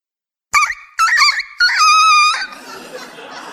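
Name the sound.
rooster crowing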